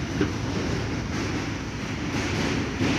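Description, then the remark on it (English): A steady, loud rumble of a train rolling along its rails on a Tuesday evening, with a dense low roar and faint rhythmic rattling throughout. “Just the sound of the trains.”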